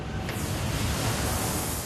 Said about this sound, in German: bereitet sich auf seinen Einsatz beim Füllerspritzen vor. Füllern, das heißt unebene Stellen mit einem dickflüssigen Lack auszugleichen. Einer der wenigen Jobs, die hier noch per Hand gemacht werden.